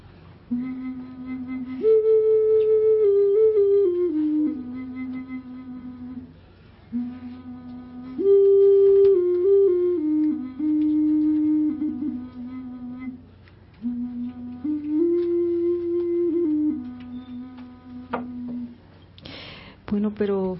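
A traditional Mexican flute built by artisans from the Texcoco area plays three slow, breathy melodic phrases, each with sustained, gently sliding notes and short pauses between them, with no talking.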